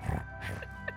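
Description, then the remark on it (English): A person imitates a cat's purr with a low, rough, rumbling voice, steady for about a second, ending in a brief throaty burst. “Am I doing a good cat purr?”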